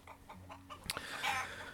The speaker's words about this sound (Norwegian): så gjorde jo det egentlig smerten vondt verre for høna, som høflig bare ga ifra seg et lite klok